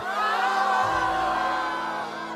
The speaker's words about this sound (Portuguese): Link de que vocês pegaram há um tempo de um imperial, ele se ativa sozinho e vocês escutam gritos vindo dentro dele.